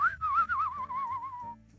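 A person whistles a short, wavering tune that slides gently downward with a warbling vibrato, clear, lasting barely two seconds with no talking.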